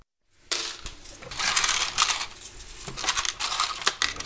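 Coins clink and rattle as a shoemaker prepares the cash register in his shoe shop shortly before eight in the morning, a busy run of bright metallic jingles and small clatters with no talking.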